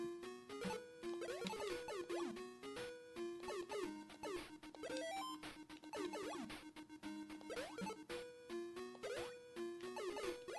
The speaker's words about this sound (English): This, this music sounds kind of intense for having gotten out of the caves and being outside again. Is it just because it's like a boss level, maybe?